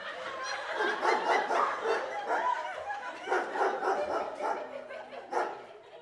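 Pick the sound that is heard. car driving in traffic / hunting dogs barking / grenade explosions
hunting dogs barking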